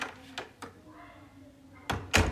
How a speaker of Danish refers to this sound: Min familie kommer ind ad døren.